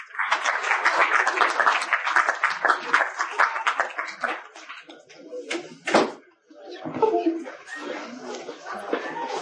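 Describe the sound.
Audience applause: dense, steady clapping from many hands for several seconds, tapering off into scattered claps, then a voice begins speaking over the last of it.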